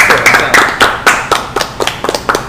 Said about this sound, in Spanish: Señores y señores, un aplauso para ustedes,